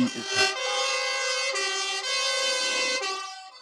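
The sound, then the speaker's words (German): A loud fire engine siren wails in steady, sustained tones with a harsh horn-like blare, briefly dipping and restarting about every second and a half, with no voices. “Sirenen danken wir jetzt schon, wenn alle mit den Kopfhörer da sitzen und jedes Mal geht's dann los.”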